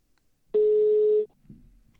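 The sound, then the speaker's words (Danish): A single loud, steady ringback tone sounds for under a second, a clear electronic beep of an outgoing phone call from a radio studio to a chief physician and addiction expert, followed by a brief faint rustle. “så ringer vi til øh, Henrik Rendum, øh, overlæge og øh, misbrugsekspert”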